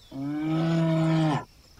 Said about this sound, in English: Andean bears can be rather vocal? I mean, at least for a bear. And we aren't talking about the classic growl or roar that movies and television use for bear noises. Andean bears communicate through squeaks, shrills, and even gentle purr like sounds.